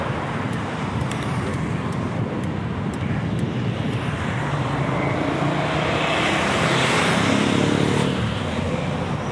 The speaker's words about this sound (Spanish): Me acaba de pasar un pedazo de autobús de estos grandes de viajeros por la izquierda y una moto a 12 cebolla por la derecha.